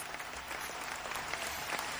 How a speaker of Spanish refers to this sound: Aplausos. Ese autobombo sí se puede.